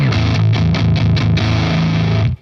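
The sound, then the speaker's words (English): Heavily distorted electric guitar played through the green crunch channel of a Revv amp with the gain turned all the way up, playing a short run of thick, saturated notes that ring loud before cutting off abruptly at the end. “This is it with the gain all the way up.”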